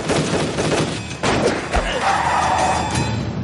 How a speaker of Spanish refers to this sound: La policía sigue disparando y Tokio dispara a bocajarro al coche patrulla.